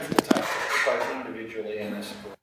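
A microphone topples over: two sharp knocks in quick succession, then a couple of seconds of muffled rumbling and scraping before it cuts off abruptly.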